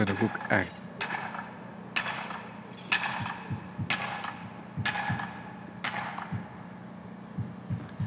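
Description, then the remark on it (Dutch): Sharp knocks ring out roughly once a second, each trailing into a lingering echo off walls, over a steady low urban hum, at an odd spot in the middle of the Papegaaienwijk neighbourhood. “Echo's doen me ook altijd denken aan”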